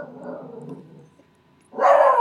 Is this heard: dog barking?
yes